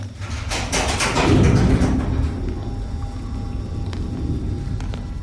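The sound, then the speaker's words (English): A heavy, faulty door is forced open with a loud grinding, rattling scrape for about two seconds, then the noise settles into a low rumbling hum with faint metallic clicks. “Looks like we should replace that door.”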